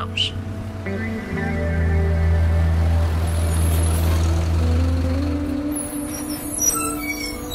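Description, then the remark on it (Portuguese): A city bus idles and rumbles, its heavy engine droning steadily, then fades as sharp bursts of air-brake hiss sound near the end. “Por isso que você gosta de vir de ônibus, né? Desce quase em frente à sua casa.”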